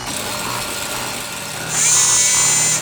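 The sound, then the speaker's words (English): A steady mechanical whir with a rustling, buzzing texture, then a loud, high-pitched electronic whine cuts in for about a second, from a newly built robot that looks like a spaceship, like a spaceship-style machine powering up. “It sounds like one, too.”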